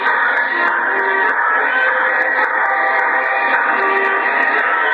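A train runs steadily on its rails between Hartford, Connecticut and Highbridge, North Dakota, a loud continuous rumbling roar with faint, regular clicking from the track joints throughout, with no voices.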